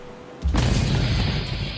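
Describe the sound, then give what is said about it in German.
A sudden, heavy explosion shakes a ship at night, bursting in after a brief quiet hum, followed by a loud, sustained low rumble that keeps roaring without fading. No voices can be heard. “Eine weitere Explosion erschüttert das Schiff und dieses Mal hört Graham Schreie.”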